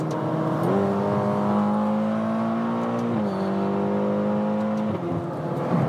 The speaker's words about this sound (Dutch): Een V8 met turbo's die lagere uitstoot heeft. En qua prestaties, ik zal even een beetje terugschakelen.